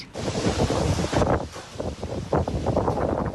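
Fierce storm wind of about 75 miles per hour roars and buffets a mobile phone camera's microphone, producing loud, continuous rumbling gusts with sharp bursts of distortion throughout.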